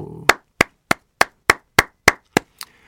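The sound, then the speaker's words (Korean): Nine crisp hand claps in a steady, even rhythm, fairly loud, with the final clap noticeably softer; no one speaks over them. Clapping on a radio show to welcome a new listener. “자, 새로운 신도 오셨습니다. 박수.”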